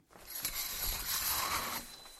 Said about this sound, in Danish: Det er lyden af et gardin. Det er nemlig sådan, at det er lidt hemmeligt, hvem man stemmer på, og derfor så kan man stå derinde bag gardinet i fred og ro og sætte sit kryds.